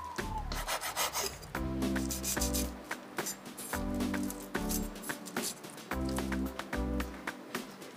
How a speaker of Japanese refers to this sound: さあそれから、えーと、とレトルトのサバを用意しますこれは食べやすい大きさに少しこう細切りみたいな感じがいいですかねこれをこうみんなで分ける形になるのでこう細切りにしてください。